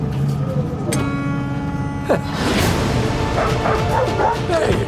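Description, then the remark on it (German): A robot learning dog language imitates a dog barking with a series of short yips and bow-wows over a steady electronic hum, with a sharper burst partway through. “Ich lerne die Hundesprache.”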